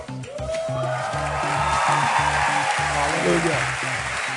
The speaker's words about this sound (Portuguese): Can we give Jesus a hand of praise? Nós podemos aplaudir ao Senhor Jesus.